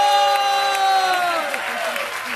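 Audience applause for a contestant at a battle event, a steady wash of clapping lasting a couple of seconds, with a sustained tonal sound sliding gently downward in pitch over it.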